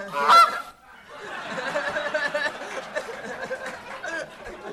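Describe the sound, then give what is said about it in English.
A loud goose honk bursts out, then gives way to a steady stretch of rapid, nasal honking and cackling that continues to the end, played as a cue when one minute of time runs out. “Uh, but whenever you reach a minute, huh, you better wrap it up, or you're gonna bring out the golden goose.”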